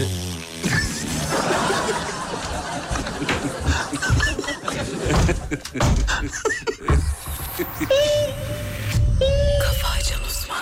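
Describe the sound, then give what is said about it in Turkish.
A coffee machine runs with a steady hiss and whirring grind, with a few rising mechanical tones near the end while voices murmur softly in the background. “Yeni açanlar söylüyorum bunlar kahve makinesi sesi.”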